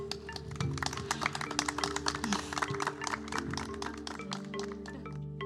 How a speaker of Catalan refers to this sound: I d'aquesta manera, amb aquests aplaudiments, tancàvem aquesta llarga sessió que ha derivat en tres capítols dedicats a parlar de la transició energètica.